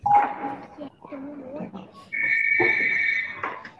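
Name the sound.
telephone ringing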